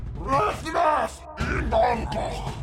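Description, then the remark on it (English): A voice imitates an ogre's bellowing scream: two long, loud, groaning roars in quick succession, strained, with a guttural, growling quality. “sees 2 Uh-oh. humans standing in the doorway. Yeah, and it good. screams something out.”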